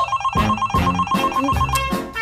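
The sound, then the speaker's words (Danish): A telephone rings insistently and keeps on ringing, its electronic warble repeating without pause, with some louder low thuds and bursts of sound mixed in underneath. “Den, den bliver ved med at ringe!”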